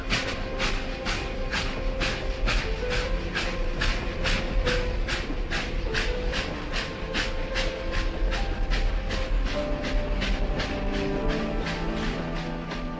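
A train rolls along the rails with a steady, rapid clickety-clack of wheels over track joints, loud over a continuous rumbling hiss, with no voices.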